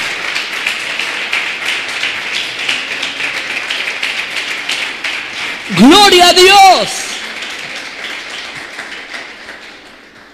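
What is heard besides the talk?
audience clapping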